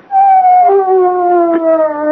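A dog lets out one long, sustained howl, its pitch sliding slowly downward over about two seconds, loud with no other sounds around it.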